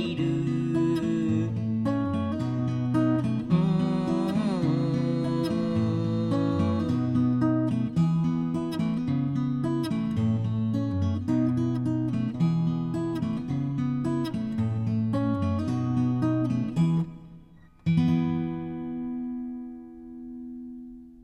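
Instrumental outro of a Japanese song: steady, sustained melodic chords play for most of the stretch, then a brief break and a final held chord that slowly rings out and fades. No voices.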